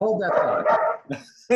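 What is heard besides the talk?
dog barking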